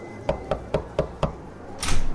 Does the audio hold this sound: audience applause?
no